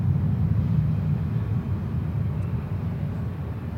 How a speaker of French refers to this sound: Bruit d'avion. Tous se figent. L'avion arrive du nord, tous s'affolent, se dispersent, la perche tombe par terre, le bruit m'assourdit. Un avion russe, l'avion passe, passe et passé, aucun obus, aucun missile, fausse alerte.